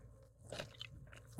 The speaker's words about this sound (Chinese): 没有，现在是我在倒饮料声。 你可以靠近麦克风说 ASMR 吗？不是你靠近麦克风，是饮料靠近麦克风。